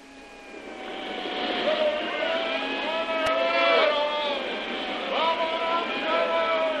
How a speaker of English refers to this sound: As night fell, the storm seemed to increase its fury